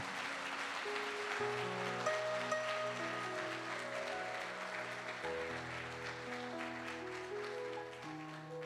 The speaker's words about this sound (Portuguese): Enquanto isso, você aplaude a Jesus para eu tomar uma água aqui. Aplaude forte, porque ele está aqui.